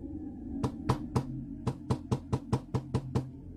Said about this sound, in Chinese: 熟睡当中的王铁树被一阵猛烈的敲门声给吵醒了。谁呀？他妈的，敲什么敲啊！